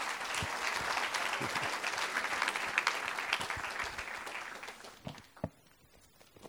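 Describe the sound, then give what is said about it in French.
An audience applauds with dense, steady clapping for about five seconds, then it thins out into a few scattered claps before fading away. “Vous pouvez l'applaudir, hein, c'était magnifique.”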